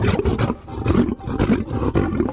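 A lion that escaped from a circus in the town of Ladispoli, Italy, an hour from Rome, roars in a series of deep, rumbling bursts about half a second apart, loud, with no talking over it.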